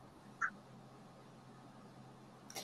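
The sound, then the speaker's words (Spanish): A goose sound effect: a single short, nasal honk rings out once near the start against a quiet, humming background, followed later by a brief soft burst of noise. “Por eso yo, igual que el ganso, quiero ver eso.”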